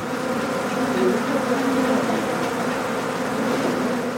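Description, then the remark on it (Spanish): A dense, steady drone of more than 40,000 bees swarming from a hive inside a wall between two wooden panels, forced open so the bees fill a small room; a continuous buzzing hum that holds at an even loudness throughout with no pauses. “Una vez que abrieron el hueco, miles de abejas llenaron el pequeño espacio del cuarto.”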